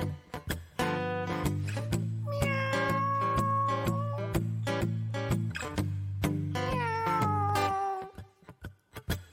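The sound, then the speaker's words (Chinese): A cat meows repeatedly in drawn-out, rising and falling calls over steady low tones and a regular tapping beat, fairly loud throughout before trailing off at the end. “我有一只猫，它是只好猫。”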